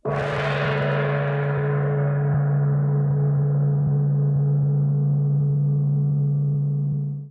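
gong

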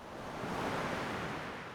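rough sea waves crashing

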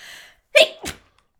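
sneeze

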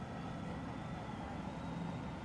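train interior rumble

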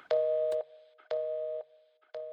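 telephone hang-up tone

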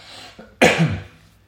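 cough

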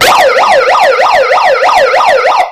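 ambulance siren passing by

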